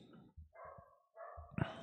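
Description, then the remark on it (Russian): A dog let loose in a village runs about and barks a few times in an outdoor-sounding setting. The barks come in two drawn-out bursts over low rumbling thumps and are fairly faint overall. “Кто-то собаку в деревне отпустил.”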